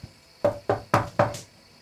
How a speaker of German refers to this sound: ich klopfe an der Tür. Du klopfst an der Tür.